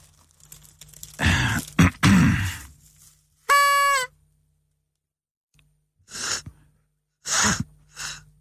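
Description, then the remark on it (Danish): Several breathy, hissing puffs of air are blown through a kazoo without any buzzing tone, coming in short bursts, with one brief tonal squeak in the middle; fairly loud. “Man kan ikke bare puste din kasu.”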